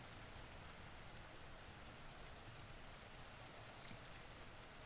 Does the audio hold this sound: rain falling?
yes